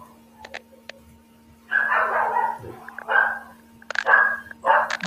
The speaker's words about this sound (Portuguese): Menos cachorro. Tá ouvindo os cachorros?